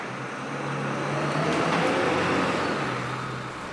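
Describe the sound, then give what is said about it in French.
A bus pulls up and drops off passengers, its engine rumbling with a steady low drone that swells briefly and then eases off as it slows. No one speaks. “À 13h47 précise, le bus déposa la jeune femme et deux autres passagers devant le numéro 16 de la rue Ulysse Grant.”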